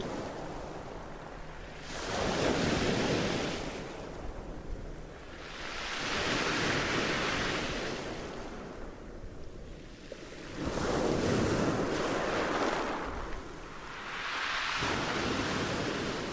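Ocean waves roll in and break on the shore in steady surges about every four seconds, each one swelling into a broad, rushing wash before receding. No voices are present.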